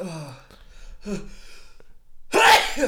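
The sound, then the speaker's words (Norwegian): A sneeze bursts out loud near the end, preceded by a couple of sharp, wheezy inhalations building up to it. “Ja, Prosit.”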